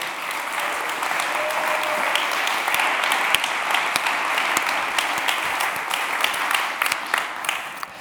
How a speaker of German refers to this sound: Also, sorry, bitte Applaus als Dankbarkeit für diese Gemeinde.